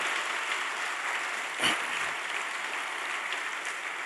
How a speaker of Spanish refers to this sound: Denle un aplauso esta mañana al Señor con todo su corazón.